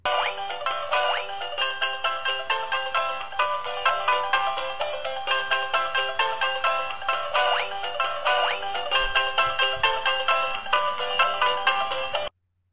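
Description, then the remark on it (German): A battery-powered toy rooster, about 30 centimetres tall, made of white plush with yellow feet, a yellow beak and a red comb, walks back and forth while playing a tinny, chirpy electronic melody, looping steadily and fairly loud for about twelve seconds, with a few soft low thumps partway through and no talking. “Er läuft batteriebetrieben hin und her und macht dabei diese Melodie.”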